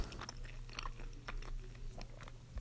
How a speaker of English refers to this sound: Mm mm mm. Mmm. Holy Toledo. Holy Toledo. I just had a huge. Sorry about chewing on the mic. I just had a huge bite right there.